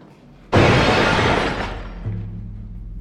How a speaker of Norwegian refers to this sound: Men eh, vi hører et fantastisk brak oppe i andre etasje. Som om en stor prismekrone blir slengt i gulvet.